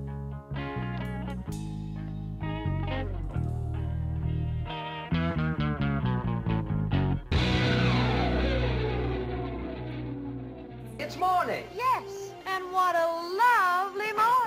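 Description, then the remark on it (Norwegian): A recorded rock song plays: electric guitar with heavy bass, a sharp burst of distortion midway, then a wailing, bending lead guitar line near the end. No one talks over it. “Det kan jo f.eks. hende at du vil høre denne her låten”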